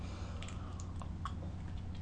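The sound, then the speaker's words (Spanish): A teaspoon stirs freshly brewed, slightly cooled black coffee in a cup, with a few light, irregular clinks, fairly quiet over a steady low background hum, followed by a first sip. “Dicho esto, presentados los titulares, voy a tomar la cucharita para revolver un café que está recién colado, ya se ha enfriado un poco mientras comento los titulares, amargo, siempre amargo y también necesario.”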